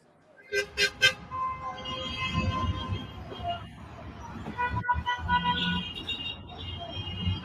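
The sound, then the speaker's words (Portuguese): Car horns blare in a street protest, starting with three quick sharp honks, then overlapping sustained honking over traffic rumble and a murmuring crowd, loud. “Tem vídeos que, que pega mesmo o buzinaço”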